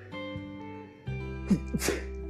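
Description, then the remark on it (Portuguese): A short, sharp sneeze bursts out, with a couple of quick breathy bursts, over a steady low droning hum and no talking. “Nossa, tá espirrando.”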